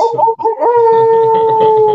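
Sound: wolf howl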